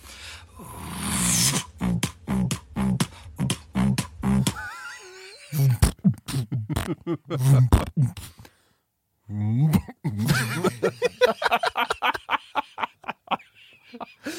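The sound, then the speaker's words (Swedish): A vocal beatbox groove with a deep, buzzing throat bass droning under rapid, rhythmic percussive clicks and hits, pausing briefly for talk before the beat picks back up. “Throat bass. Så den här antar jag då liksom ska komma från halsen på något sätt.”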